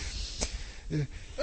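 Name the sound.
sneeze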